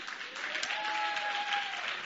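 Audience applause at a church for one of its youth and teen pastors, a steady wash of many hands clapping at once for about two seconds, fairly quiet, with a faint high tone running through the middle of it.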